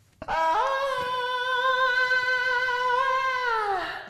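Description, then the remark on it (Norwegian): A single loud human yell, recorded shortly before the broadcast and played back, held high and steady for about three seconds with a slight waver, then sliding down as it fades out. No one talks over it. “Men det var, pretty, det var jævlig awesome rop, altså.”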